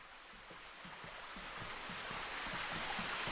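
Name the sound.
spring water flowing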